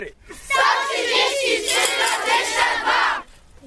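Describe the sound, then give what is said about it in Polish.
A large crowd of school students shouts the number 133.22 together in unison for about three seconds, a loud, dense roar of many voices, slightly ragged rather than perfectly synchronized. “Wszyscy teraz krzyczą 133,22.”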